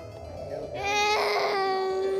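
A baby wails in a steady, high-pitched cry that swells louder after a brief whimpering start, with a strained, harmonic tone and no other voices.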